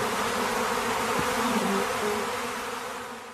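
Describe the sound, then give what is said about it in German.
A dense swarm of bees buzzes continuously, a loud, steady droning hum filling the whole moment with no voices, fading slightly toward the end. “Damn it, I gotta ward off the bees with my cream based sports beverage.”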